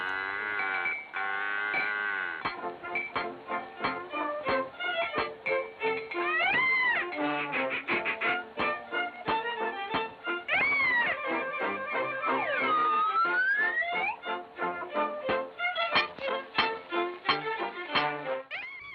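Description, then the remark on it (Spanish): A bouncy old-time melody from a 1928 Disney Mickey Mouse cartoon short plays throughout, its notes formed by comic mooing and meowing animal-like tones with sliding squeals, busy and fairly loud, with no talking. “La melodía que suena proviene de un cortometraje de Mickey.”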